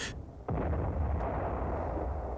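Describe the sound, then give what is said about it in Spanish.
A heavy cannon blast booms out suddenly, its deep low rumble rolling on and lingering for nearly two seconds, with no voices; the first shots of artillery batteries set up to attack the Trocadero fort in the marshes near Cádiz. “Son los primeros tiros de las baterías que se han armado para atacar al turocardero.”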